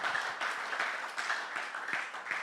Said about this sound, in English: I want you to clap your hands real fast. Je veux que vous applaudissiez très très vite.